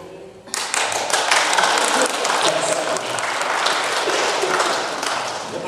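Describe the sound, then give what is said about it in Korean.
A church audience breaks into sustained applause, many hands clapping at once in a dense, steady roar that holds at full strength for several seconds with no voices standing out. “박수 안 치는 사람은 우리 교회 아니니까”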